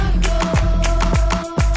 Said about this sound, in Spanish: la opción 1 es … de …